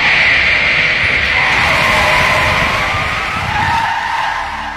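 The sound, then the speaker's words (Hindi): A truck tire bursts while the truck is driven along a bad, rough road, and the tires skid loudly across the surface: a harsh continuous screech over a grinding rumble that lasts several seconds before easing slightly at the end. No voices. “आगे रास्ता थोड़ा खराब था और इसी खराब रास्ते में गाड़ी चलाते चलाते एक जोरदार आवाज आई”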